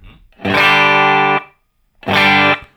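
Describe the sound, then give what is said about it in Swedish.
Two loud, buzzy, harmonically rich tones play with impulse-response (IR) reverb added to give a sense of room. The first lasts about a second and the second is shorter. Each leaves a brief lingering tail as it cuts off. “Ni hör att det blir lite rum.”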